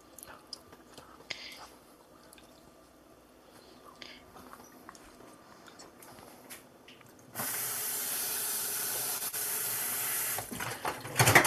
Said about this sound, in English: Okay, still not as sticky as I think it should be, so I'm just going to do it a little bit more water.